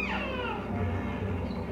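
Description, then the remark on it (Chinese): Killer whale calls: loud, harmonic squealing tones that slide downward in pitch, overlapping one another over a steady low rumble, with no talking. “接下来我们来听听虎鲸的声音吧。”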